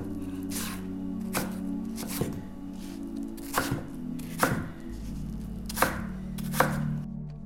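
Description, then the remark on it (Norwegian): A knife cutting and peeling two apples on a board: a series of crisp, irregular chops with soft scraping between them, moderately loud over a low steady hum, with no talking. “Jeg starter helt først med å kutte og skrelle eplene.”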